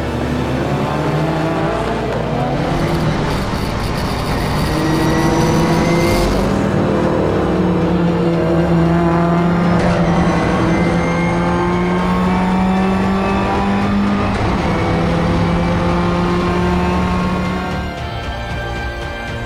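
Rally cars roar as they accelerate away from the start, engines climbing in pitch through repeated gear changes, several motors overlapping in a loud, sustained snarl with no talking.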